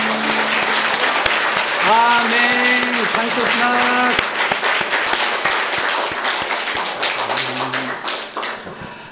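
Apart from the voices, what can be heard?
audience applause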